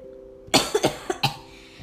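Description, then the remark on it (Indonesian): A burst of several harsh coughs in quick succession, loud, with no talking around them. “Iya guys, ini aku udah berapa minggu ini nggak lagi batuk jadi kalau tidak terkendala sorry banget ya”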